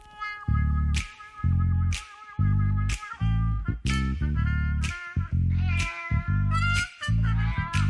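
A cat meows loudly and insistently, with a steady run of drawn-out cries following one another almost without pause, each starting with a sharp onset.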